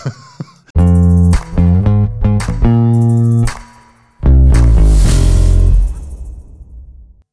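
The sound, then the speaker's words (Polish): A loud electronic mobile phone ringtone plays a short, bright melody of stepped tones, pauses briefly, then sounds again before fading out; the call goes unanswered. Nobody speaks over it. “Dzwonią właśnie. Co, co tam mówią? Danuta dzwoni.”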